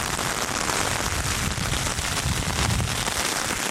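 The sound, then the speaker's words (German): Heavy rain pours down steadily outdoors on an island, a dense, constant hiss with spattering on surfaces and no voices. It stays loud and unbroken throughout. “Also ich weiß gerade nicht, wo ich am Platz bin, wo sowohl Empfang ist als auch kein schlimmer Regen meine Hose ist schon durch.”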